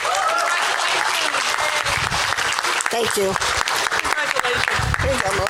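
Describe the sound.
Sustained audience applause for scholarship winners at a scholarship event, a dense, steady wash of clapping at full loudness throughout, with a voice briefly speaking over it near the end.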